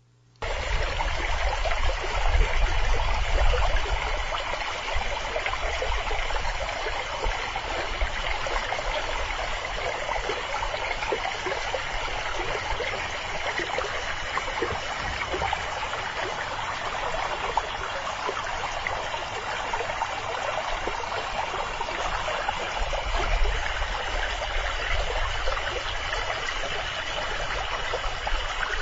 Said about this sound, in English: So for this episode, we're going to hear uh, from a sound that I recorded at the San Pedro National Conservation Area. This is in southern Arizona, and it's the sound of the San Pedro River.